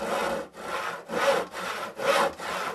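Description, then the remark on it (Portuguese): Wood furniture being sawed in half by hand in a steady back-and-forth rhythm, about six rasping strokes with short breaks between them, gritty and moderately loud, with no voices. “Cerraram cada uma das mobílias ao meio.”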